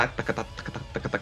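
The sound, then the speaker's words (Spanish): A voice imitates the galloping guitar rhythm of a song, repeating quick, bouncy syllables in an uneven clip-clop pattern, moderately loud, with no other sound. “igual como que la, la guitarra así suena así como galopando”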